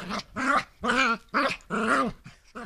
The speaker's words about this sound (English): In the living room of this Covina townhome, a Chihuahua Terrier mix is playing a fierce game of tug of war with her favorite chew toy.